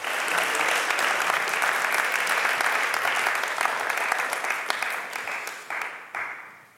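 A crowd applauds steadily, dense overlapping claps forming a loud, even wash of sound that holds for several seconds before tapering off at the end.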